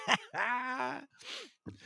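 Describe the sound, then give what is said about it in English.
A drawn-out, groaning yawn, its voiced tone sliding downward before trailing off into a breathy exhale, with a short vocal sound just before and after. “I know I've yawned a few times tonight”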